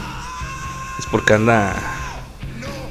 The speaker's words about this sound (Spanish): Ahí si escuchan de fondo a mi gata rara